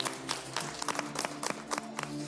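A small audience applauds on the MasterChef cooking show as an eliminated contestant leaves the kitchen, a rapid, irregular patter of overlapping claps that carries on steadily for a couple of seconds at a fairly soft level, with no one speaking.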